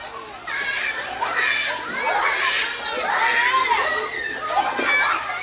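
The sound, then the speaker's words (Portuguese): Several children shout and squeal excitedly in a lively, continuous burst of play, their high voices overlapping loudly, as they play on the balcony and in the living room of a home during pandemic quarantine with schools closed. “Com as escolas fechadas, a varanda e a sala de casa viraram um parque de diversões, viraram um playground para a criançada.”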